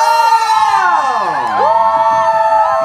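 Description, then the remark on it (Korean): An open-studio audience cheers and screams continuously after a singing performance, a dense wash of high-pitched shrieks and whoops with voices sliding up and down, loud and sustained throughout. “오픈 스튜디오 소리 질러”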